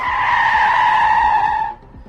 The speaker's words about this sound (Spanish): Suena un frenazo enorme y, mm, mm, a ver, por ese sonido, afectado por ese sonido, usted no se ha dado cuenta, pero ha sonado también eso otro.